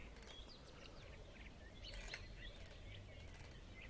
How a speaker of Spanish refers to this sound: empezás a caminar adelante, te dejan un margen, sentís los pajaritos,